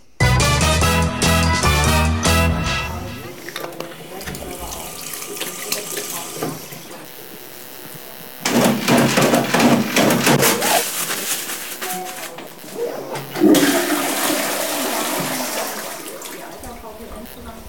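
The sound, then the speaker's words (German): Bathroom sounds during a toilet visit: a rapid rattling burst of a toilet paper dispenser being pulled, followed by bursts of rushing, gurgling water as a toilet flushes and refills. “Was ganz witzig war, wenn einer aufs Klo gegangen ist. Da habe ich auch was vorbereitet.”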